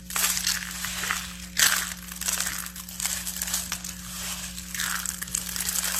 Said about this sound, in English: drop the needle anywhere, and you'll see what I'm talking about. this is like crunchy soap time. Okay, here we okay, go. Okay, yeah, ASMR.